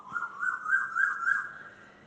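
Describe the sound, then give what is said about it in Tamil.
An Asian koel calls with one drawn-out, whistling note that wavers gently in pitch for about two seconds, moderately faint, with no voices over it. “பாருங்கள் குயில் எவ்வளவு அழகாக கூவுகிறது டாவோ என்கிறதாம்”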